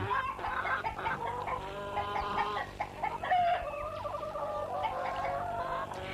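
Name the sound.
hen clucking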